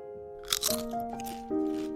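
A crisp, crackling bite into crunchy food, with a burst of sharp crunches followed by a few softer crackles, over a steady low musical hum.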